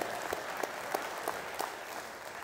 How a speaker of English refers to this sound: Thank you for those three claps of people in here in the house today.